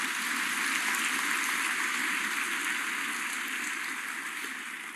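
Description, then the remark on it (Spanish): An audience applauds God in a dense, steady wash of clapping that holds for several seconds before easing slightly at the end, with no voices heard over it. “Vamos una vez más a darle un aplauso porque cuán, cuán grande es mi Dios.”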